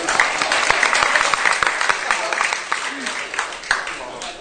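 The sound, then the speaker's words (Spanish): A crowd applauds steadily for several seconds, many hands clapping in a dense, even patter without letup. “Un aplauso para él, por favor.”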